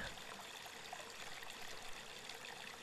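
Water flows and trickles steadily, a continuous bubbling stream with a soft, even texture and no voices, holding at a constant low level throughout.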